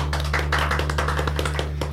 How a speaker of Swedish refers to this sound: En applåd va?